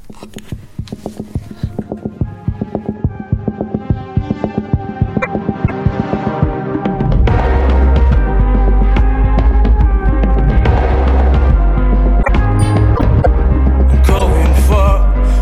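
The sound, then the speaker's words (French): A pop song plays with steady rhythmic notes over a pulsing beat. About halfway through, a heavy, booming bass kicks in and the track swells fuller and louder. “Et en parlant de découvrir, on va découvrir ces chansons justement à l'instant.”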